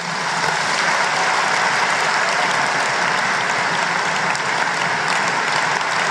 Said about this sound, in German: Wir hören noch mal kurz in den Applaus rein. War es jetzt ein besonders starker Applaus oder hm?